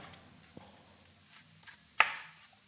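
A knife roughly chopping vegetables on a board: a few soft, irregular taps, then one sharp, loud chop near the end, with no talking.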